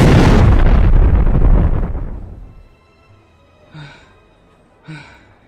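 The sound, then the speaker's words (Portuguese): A loud gas tank explosion, set off by a ricocheting gunshot, bursts out and rumbles away over a couple of seconds, leaving near silence broken by two short breathy gasps. “Num desespero, o assaltante disparou um tiro que rebateu bem no depósito de gás do B. Não demorou muito pra”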